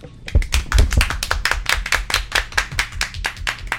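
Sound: clapping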